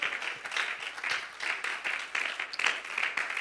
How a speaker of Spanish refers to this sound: ¿Alguien cree que el propósito de Dios todavía está en curso en nuestros corazones? ¿Qué tal si le brinda un aplauso de mayor calidad a la presencia de Dios?